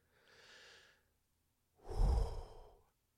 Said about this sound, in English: I can feel the anger bubbling. Take a deep breath.